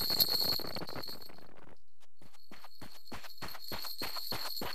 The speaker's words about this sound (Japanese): っていうかおもちゃの音うるさいなロメスはおもちゃの音を響かせながら走り続けた